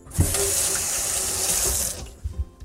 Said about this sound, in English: with soap, not just a rinse, full wash, uh, because we want to make sure that we don't pass any potential germs or contaminants uh, from that meat to any other parts of my kitchen. So please bear with me while I wash my hands.